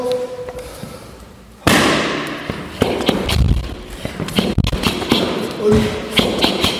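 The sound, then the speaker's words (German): A run of sharp boxing punches smacking into pads, starting with a loud hit and continuing as a quick, slightly irregular series of solid impacts with faint movement in between. “Dann geht es bam, bam, bam. Also eins, zwei, drei, vier.”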